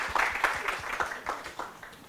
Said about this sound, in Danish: Øh, nu er de klapsalve.